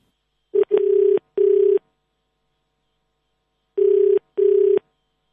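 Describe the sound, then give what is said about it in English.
Telephone line tones for a failed call to a wrong number: a steady mid-pitched buzzing tone in bursts, a quick blip, then two longer beeps, a pause, and two more, with no talking. “as you can hear, Sheila's number is wrong.”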